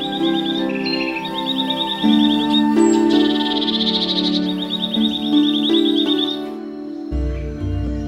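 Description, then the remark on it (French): A nightingale sings in rapid, repeated high trills and warbles, clear, over a soft sustained musical background, with no talking. “Et sa voix s'éleva, pure et douce, comme une perle de cristal, allant droit au cœur des courtisans, devenus muets d'admiration.”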